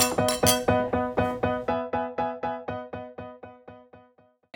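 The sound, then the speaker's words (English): Bright, ringing glass clinks repeat in a quick, steady rhythm, about fifteen strikes, each with a short shimmering ring that slowly grows quieter. No one speaks. “Cheers. Cheers. Cheers.”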